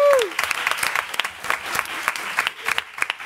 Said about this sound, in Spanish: Que siga ese aplauso